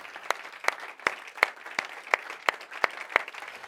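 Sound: audience applause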